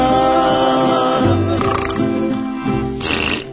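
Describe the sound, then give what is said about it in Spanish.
A person loudly imitates snoring with their voice, a sustained, rough, throaty rumble that shifts in pitch and ends in a breathy, hissing burst, with no other talking. “Oye, roncaste por ambos lados.”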